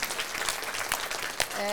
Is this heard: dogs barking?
no